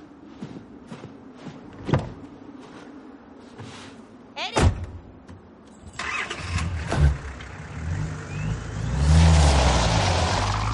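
On a street, a couple of sharp thuds like a car door closing as a man gets into a police patrol car, then its engine cranks to life, idles briefly and revs up loudly as it pulls away.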